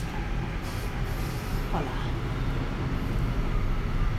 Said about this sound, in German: Das liegt daran, dass ich an den Bahnschienen wohne. ja. Und die Bahn da lang kommt.